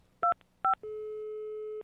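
telephone dialing tones

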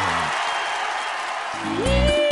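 audience applause

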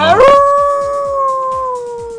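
dog howling

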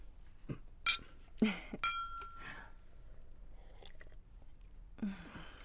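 glasses clinking

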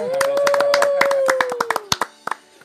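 clapping

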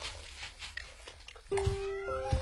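cat meowing

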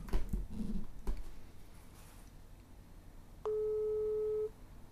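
telephone call tone

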